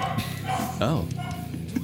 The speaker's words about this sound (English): the dogs have something to say about that. See, if we acknowledge it, then we just yeah we don't have to edit, edit it out.